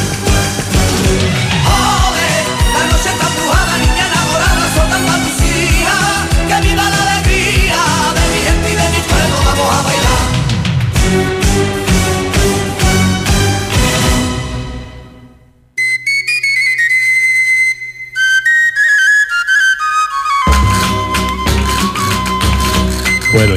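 A sevillanas recording plays loudly with dense, rhythmic strumming and sharp percussive accents, then briefly drops out into a sparse, lighter passage before the full band comes back in.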